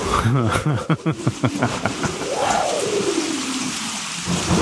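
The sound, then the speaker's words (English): Steady rain hisses throughout, with a rolling rumble of thunder swelling midway. A voice laughs and murmurs over the downpour at the start. “the lightning is coming, master.”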